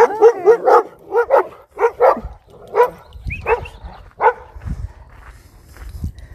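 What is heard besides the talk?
large dogs barking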